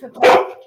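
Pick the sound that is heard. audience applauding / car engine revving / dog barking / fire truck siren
dog barking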